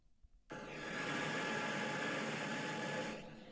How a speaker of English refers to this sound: I have my white noise machine blaring as I'm reading. You want to hear what it sounds like when I'm reading?